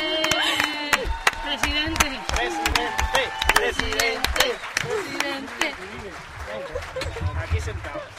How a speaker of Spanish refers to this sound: Espérate, espérate, espérate, los aplausos.